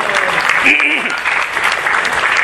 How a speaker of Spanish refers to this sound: Gracias. Gracias, le damos un gran aplauso.